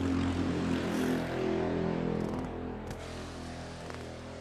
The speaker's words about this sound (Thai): เสียงเรือมาครับ